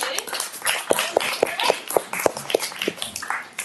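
A crowd applauds after a talk, a dense wash of overlapping handclaps with a few sharper individual claps popping out, fairly steady and moderately loud throughout.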